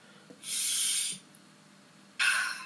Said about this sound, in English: I'll sniff the drink and I'll I like pull the aroma towards me.